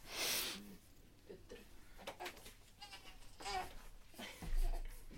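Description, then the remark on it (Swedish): A small boy whimpers and fusses in short, wavering cries, with a breathy burst at the start and a low bump near the end. “Det är en som lite börjar gny här bakom så jag ska bara...”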